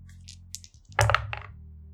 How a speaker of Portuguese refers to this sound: Rola os dadinhos.